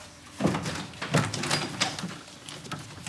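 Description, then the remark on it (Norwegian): A janitor's closet door is shut and held closed from inside while someone tries to open it, with several muffled thumps and rattles over a few seconds as it strains against its frame. “Han smetter seg lynraskt inn på bøttekottet”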